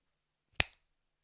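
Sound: finger snap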